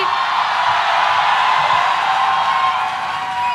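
A large crowd bursts into loud, sustained applause and cheering to welcome Nawazuddin Siddiqui, with whoops and shouts rising over dense clapping that stays steady throughout.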